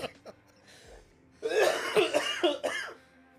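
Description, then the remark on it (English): A harsh coughing fit: a couple of small coughs, a short pause, then a loud run of raspy, rapid coughs in quick succession, with no talking. “I can't stop coughing.”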